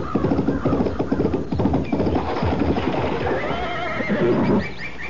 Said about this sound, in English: Before I could move, she clapped spur to her horse and headed for a high stone wall.